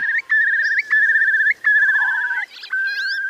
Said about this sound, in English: And my suggestion was, why don't we put out a single that was pure bird song? And the RSPB went for that.